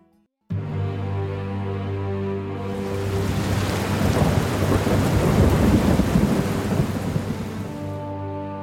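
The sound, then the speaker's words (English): Heavy rain pours down steadily while thunder rumbles through it, swelling louder and rougher in the middle before easing slightly. No voices, just a dense wash of storm noise. “It is raining hard.”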